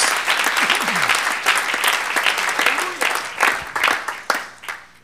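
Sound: audience applause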